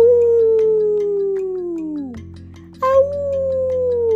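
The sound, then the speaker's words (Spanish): A wolf howls twice: a long, loud, mournful note slowly sliding downward and fading, then after a brief pause a second howl rises in and holds steady, clear. “Entonces puso sus cuatro patas bien puestas en el suelo, movió la nariz y lo intentó. ¡Au!”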